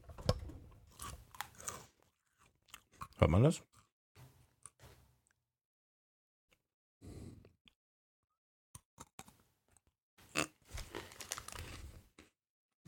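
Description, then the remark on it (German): Crunchy food being chewed ASMR-style right up against the microphone, loud irregular crackling bites in bursts separated by quiet gaps, with a brief spoken question partway through. “Stecke den in den Mund. Machen wir das so ASMR-mäßig so? Pass auf, da muss ich nah ans Mikro.”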